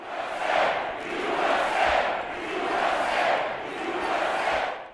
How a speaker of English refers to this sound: pretty pretty kind of comparable to what we've you know come to expect at uh, uh, Trump rallies. I mean, it's, it's, like I said, it's a fired up crowd, uh, lots of cheering throughout the speech. You kind of hear things like uh, "Chance of USA."